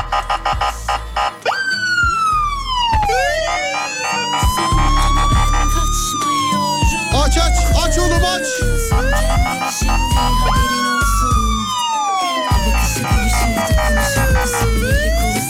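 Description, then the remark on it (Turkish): Several emergency sirens wail at once in traffic, their rising and falling tones overlapping continuously and loudly over a low rumble of engines, with no talking. “Trafikte bazen tam böyle bu seslerin arasında kalıyorsun yani böyle.”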